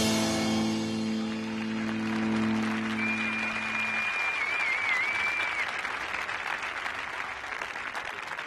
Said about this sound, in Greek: Όμορφο είναι να ξεκινά την εκπομπή με χειροκροτήματα.